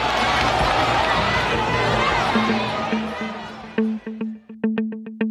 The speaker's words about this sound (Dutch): Aanhangers van beide kandidaten raken in gevecht en stoelen vliegen door de lucht.